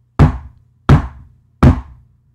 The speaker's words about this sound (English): In a snowy, secluded town in Vermont, an elderly couple heard the sound of three loud knocks on their door.